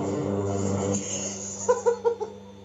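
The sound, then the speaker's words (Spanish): A lawn mower drones steadily as grass is cut at a house, a low, even engine hum, while a few short bird chirps break in near the end. “Están cortando, cortando el pasto en mi casa.”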